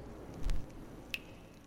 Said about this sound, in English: There was a trickle of water pulling at the back of the room. Other than that, quiet.